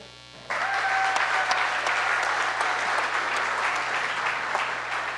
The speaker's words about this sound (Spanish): Aplauso.